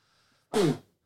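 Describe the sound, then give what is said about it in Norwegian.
A single loud sneeze bursts out abruptly, explosive, then trails off quickly into quiet. “Prosit. Ja, takk.”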